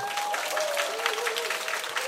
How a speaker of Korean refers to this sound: 예, 박수 좀 보내주시고요.